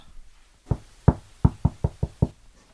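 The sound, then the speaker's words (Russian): Seven sharp wooden knocks against a bed headboard, mimicking someone knocking at a door, fairly loud, in a quick rhythm with a short pause after the first two. “он стучится в дверь к Шварценвольфу. Так воспроизведем этот звук об спинку кровати.”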